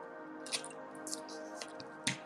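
Someone sips water, with a few soft wet slurps and gulping clicks spaced across a couple of seconds, quiet and with no talking.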